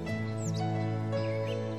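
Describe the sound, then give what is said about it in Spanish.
A goldfinch sings a few brief, high chirping phrases, faint, over a steady low droning musical tone that fills the background throughout. “No era el canto de un pájaro, era la voz de Hilge, que desde entonces se sigue escuchando en el canto de los jilgueros que hoy pueblan los bosques de nuestras tierras.”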